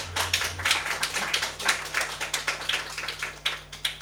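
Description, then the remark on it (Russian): Audience applause at a live jazz concert in the Old Fashioned Radio club: many overlapping hand claps forming a steady, crackling patter with frequent sharp peaks, sustained throughout at moderate volume with no one speaking, over a faint low hum. “Ну, после таких аплодисментов э, я, наверное, коротенько расскажу историю Old Fashioned Radio и э, клуба, в котором вы сидите.”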